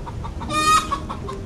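A hen clucks, a short burst of squawky, rising clucks in the middle with softer clucking around it, no voices present.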